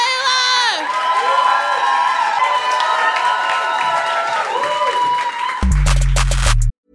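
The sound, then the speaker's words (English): A crowd applauds and cheers loudly and steadily, with whoops and shouts over continuous clapping, before an abrupt cut to a different bright, punchy sound at the end. “Another round of applause for”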